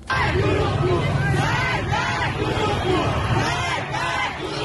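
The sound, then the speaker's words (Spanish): Hundreds of Iranians protest in Tehran, at the gate of Amir Kabir University of Technology, chanting slogans against the Islamic system and the Revolutionary Guard in unison, loud rhythmic bursts of many voices rising and falling about once a second over a steady roar of crowd noise. “cientos de iraníes protestaron en Teherán con fuertes lemas contra el sistema islámico y la Guardia Revolucionaria.”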